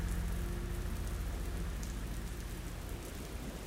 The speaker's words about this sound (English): The sky is now pouring blood rain.